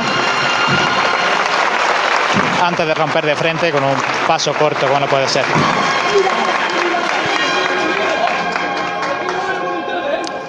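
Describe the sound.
A crowd applauds steadily throughout, a dense rattling wash of clapping mixed with murmuring voices, while a man talks over it the whole time. The audience is applauding a street procession as it enters the wider part of Calle Almenas, behind the Santa Iglesia Catedral.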